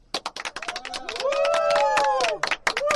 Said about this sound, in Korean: 화요일 10시 재즈 블루스 어 시작하도록 하겠습니다. 박수!